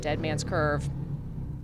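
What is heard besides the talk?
motorcycle passing by outside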